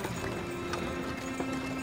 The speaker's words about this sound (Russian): Сказал так, лошадей стегнул и укатила бричка